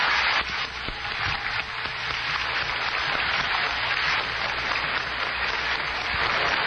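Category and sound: crowd, audience applause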